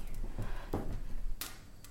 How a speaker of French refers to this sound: Quelque chose crépite, on dirait des flammes. Ça vient de là-haut.